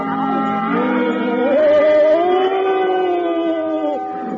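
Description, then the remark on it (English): A loud, sustained howl of blizzard wind covering Pevensey Bay Station, rising and falling in pitch for about four seconds, a single unbroken moaning tone with no talking. “The blizzard raged.”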